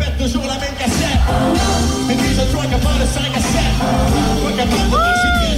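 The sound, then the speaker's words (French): A loud live concert roars with music and crowd noise as it ends on a well-known song, and near the end a father attending with his son lets out a rising, whooping shout above the din. “c'est moi qui crie.”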